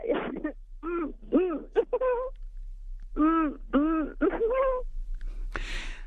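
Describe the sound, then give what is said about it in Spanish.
A woman imitates a turkey gobble with bursts of rapid, warbling vocal yodels, pausing between runs, ending with a short breathy hiss; fairly loud, no words spoken. “… está haciendo un guajolote, realmente … hace un guajolote”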